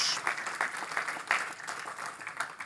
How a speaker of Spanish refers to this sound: Denle un aplauso fuerte a nuestro Dios.